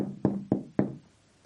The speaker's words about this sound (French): Puisque cette veuve, tous les matins, il vient frapper à ma porte là.